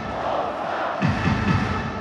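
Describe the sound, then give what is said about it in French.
A crowd of 11,000 spectators roars and cheers continuously for Poland during a match against France, with a swell of rhythmic chanting voices joining in halfway through, loud and dense with no single voice standing out. “11 000 spectateurs ont passé 60 minutes à encourager leur pays, Polska, la Pologne.”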